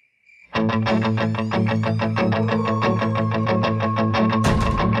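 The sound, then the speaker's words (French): A loud rock band cover recording, made over webcams during lockdown, kicks in after a brief faint tone, with distorted guitars chugging in a steady, driving rhythm over heavy bass and pounding drums, ending on a crash. “c'est le groupe de … avec euh, … euh, et une reprise de Time Warp”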